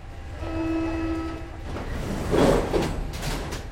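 A metro train running to Saint-Michel station, with a steady low rumble throughout, a sustained whining tone near the start, then louder clattering and rattling bursts as the carriage moves. No one speaks.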